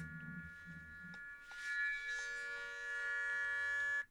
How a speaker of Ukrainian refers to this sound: Ну, власне, напевно, ми можемо і завершити на цьому нашу розмову, враховуючи, що і повітряна тривога тут спрацювала.